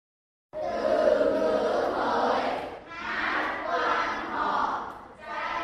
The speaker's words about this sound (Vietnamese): từ xa những tiếng đọc râm ran hay tiếng trẻ đọc đánh vần tiếng Việt phát ra từ các lớp học của trường tiểu học thống nhất ở thị xã Thà Khẹc, tỉnh Khăm Huồn, miền Trung Lào